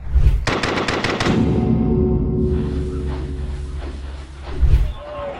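A quick burst of gunfire, six or seven loud shots in rapid succession, followed by a low sustained rumble and one more heavy thud near the end.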